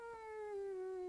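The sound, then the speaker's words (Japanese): A single drawn-out voiced moan, pitch sliding slightly downward, as a person imitates the low grumbling growl a pet cat made when angry. No other sounds accompany it. “あこれ怒ってる時の声だねこれね うんって言うでしょ、うん、なんかこうやり取りしててねなんか友達みたいだったんですよ飼ってる猫だけど”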